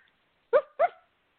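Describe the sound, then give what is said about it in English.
A dog barks twice in quick succession, two short, fairly loud woofs with no other sound around them. “Uh, the dog races off.”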